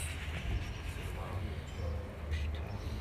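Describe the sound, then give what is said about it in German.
A train approaching the stop, already visible from afar, rumbles along the rails with a steady, heavy low drone and faint metallic hiss, the sound holding fairly constant as it draws near. “Ja, der Zug kommt.”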